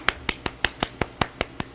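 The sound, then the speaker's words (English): Ten quick, crisp finger snaps in a steady, rapid rhythm, used in place of applause to welcome a guest, with nothing else around them. “So that's my gay ass clap.”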